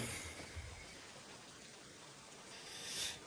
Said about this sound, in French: tu te gardes devant la maison de, Fred sous, sous la pluie battante maintenant